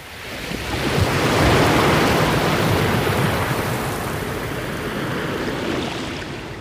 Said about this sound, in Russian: Как только они сделали это, вода вновь хлынула с огромной силой и все скрыла под собой.